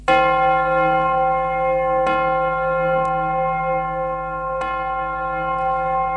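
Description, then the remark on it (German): A church bell in a bell tower rings loudly and steadily, its rich harmonic tones sustaining throughout, with a few fresh strikes refreshing the sound every couple of seconds; no voices. “Deswegen, Janina, gib uns bitte nochmal den Glockenturm.”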